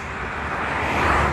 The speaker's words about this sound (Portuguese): por favor, para de passar carro. Só um pouquinho aqui para atravessar.